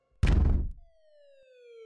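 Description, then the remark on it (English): A heavy thud is followed by a police car siren, a single steady wailing tone that slowly slides lower, clear, with no voices present, as police arrive at a house. “Within minutes, there were sirens and lights surrounding the house.”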